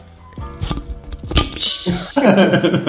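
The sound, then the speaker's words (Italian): Someone vocally imitates a can being opened, though the can is already open: a few clicky, percussive mouth bursts and a short hissy puff, then a sustained voiced tone. The mimicry is rough and only loosely can-like. “Dovete vedere la scena perché la, la, lattina è già aperta e lui ha cercato di emulare il suono della lattina che si apre con, eh, con scarsissimi risultati.”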